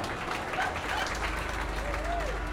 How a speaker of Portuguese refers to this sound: Ao final de uma das falas, ela ficou tão emocionada com a esperança de poder ser alguém melhor que teve de levantar-se para aplaudir.